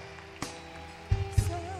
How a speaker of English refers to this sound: Oh, keep clapping for them as they come.